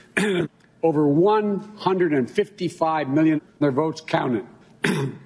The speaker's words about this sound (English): He couldn't stop clearing his throat. The guy was full of phlegm. We put together a montage of this speech, and it sounds like this.